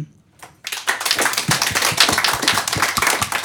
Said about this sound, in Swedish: Det är valår. Jag vill att alla som ska rösta applåderar nu.